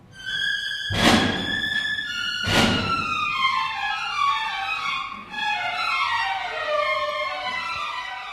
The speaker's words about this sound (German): So klingt es. Das Vorspiel zu Mieczysław Weinbergs Oper Die Passagierin am Freitag, also Ende der Woche, ist am Theater Gera Premiere.